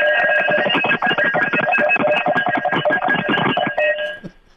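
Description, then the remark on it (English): Cowbells clang loudly and continuously, several rung at once in a rapid, jangling clatter with bright metallic overtones, lasting a few seconds before fading out. The cowbells are being signed for Mississippi State fans. “So, so was, uh, I'm signing some cowbells, and they sound like this.”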